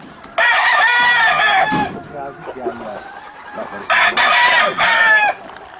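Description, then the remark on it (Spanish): A rooster crows loudly twice, each long harmonic call lasting over a second, with hens clucking and faint murmuring in the quieter stretch between the crows. “estoy yo aquí todos los días, estoy con mis gallinas”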